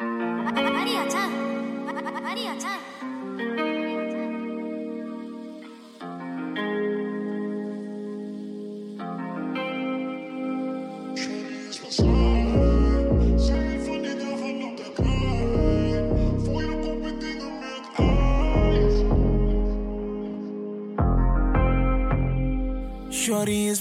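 A rap track plays: melodic, auto-tuned sung vocals over sustained synth chords, then booming 808 bass hits and beats kick in around the midpoint, pulsing in regular bars.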